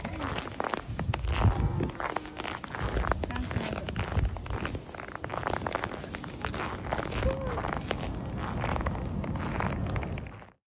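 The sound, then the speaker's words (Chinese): Footsteps crunch through a thick layer of snow in Northeast China, recorded on video while playing in the snow, in a steady walking rhythm, each step a crisp, gritty crackle repeating for about ten seconds at a fairly even loudness, with faint murmuring in the background. “嗯， 你就特别渴望进去踩一踩，然后那个踩雪的声音也非常的治愈。”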